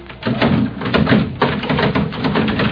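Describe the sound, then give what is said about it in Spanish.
A locked service door of a house is tugged and rattled without opening, giving a steady run of dull clattering and knocking bursts for a few seconds, fairly loud, with no voices. “Mm, debe tener un pasador por el interior porque se resiste firmemente.”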